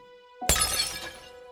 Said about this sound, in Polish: Wazuś uderzył swoją dolną częścią o kafle podłogi. Powstała dziura, woda się wylała, kwiaty rozsypały.